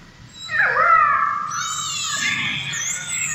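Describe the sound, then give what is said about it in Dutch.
Orca calls underwater in the sea: high, squealing whistle-like cries that bend and glide in pitch, several overlapping calls in close succession, loud over a faint low rumble, with no voices. “We zitten in zee. Het zijn geen gildende meisjes. Het zijn orcas.”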